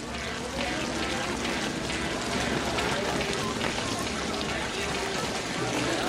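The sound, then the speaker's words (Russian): Steady rain pattering on the city pavement of Los Angeles, a dense, even hiss of countless drops that holds at a constant level throughout, with a low rumbling hum underneath. “Если и не музыку, то, по крайней мере, некий шум, эмбиентный гул, будь то капли дождя, бьющие по мостовым Лос-Анджелеса”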